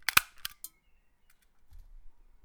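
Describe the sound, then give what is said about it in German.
A stapler clacks sharply a few times in quick succession, crisp, as sheets of paper are stapled, then everything falls nearly silent apart from a faint low rumble near the end. “einfach so ein Tacker”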